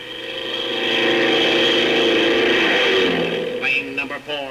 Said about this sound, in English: Plane number seven now taking off for reconnaissance.